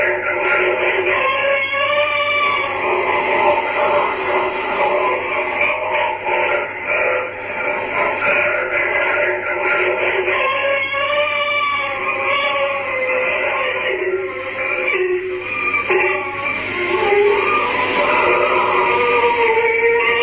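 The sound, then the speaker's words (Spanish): Wavering, wail-like cries run almost continuously through the dense, radio-like static hiss of a psychophony recording, staying loud and steady across the whole stretch with no clear speech. “este fragmento se escuchan llantos durante la mayor parte del audio, lamentos que parecen ir a más según pasan los segundos y finalmente el sonido de unas campanas.”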